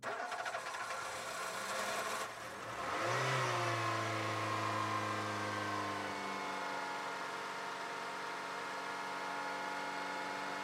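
A car engine turns over and roars to life with a quick rising rev, then settles into a steady, loud hum that continues to the end without any talking.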